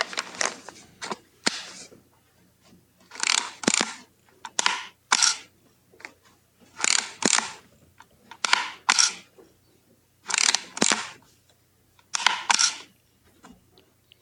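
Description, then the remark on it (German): A Yashica Y35 retro-style digital camera being worked: crisp shutter clicks and ratcheting film-advance sounds repeat in about five regular clusters, with quiet gaps between and no voices. “Ich habe meine Yashica Y35 vor einigen Wochen erhalten und finde sie lustig.”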